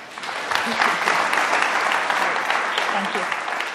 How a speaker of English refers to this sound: Well, thanks everyone. Um, I want to give a good round of applause to our speakers.